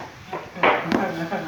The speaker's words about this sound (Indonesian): ganggu dari tadi yang tak tak tak tak tak tak itu bunyi apa? Apa nama barang itu tuh? Lesung ya, lesung ya. Lesung, lesung. Lesung. Lagi numbuk cabai. Lagi numbuk cabai.